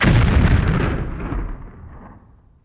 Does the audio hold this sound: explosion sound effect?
yes